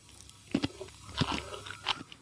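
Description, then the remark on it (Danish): Crunchy chewing of salted jellyfish, with a few distinct crisp crunches spaced across a couple of seconds and soft mouth sounds in between; no one speaks. “Den knaser lidt.”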